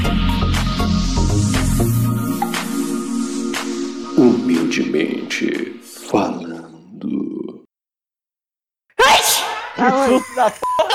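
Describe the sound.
A woman sneezes loudly with the microphone inside her mouth, giving a harsh, distorted burst and breathy rumble, surrounded by indistinct voices and a brief silence before more vocal noise.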